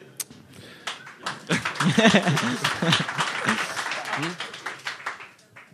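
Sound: audience applause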